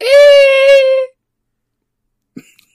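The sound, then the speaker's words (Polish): A voice imitates a squeaky party blower with one loud, buzzy squeal held steady for about a second, followed by near silence and a faint brief click. “Tak, to ja teraz zrobię dźwięk taki, co się dmucha i wydaje taki dźwięk piszczący.”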